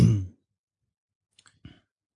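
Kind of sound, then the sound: household object, mouse click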